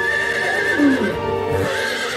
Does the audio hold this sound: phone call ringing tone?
no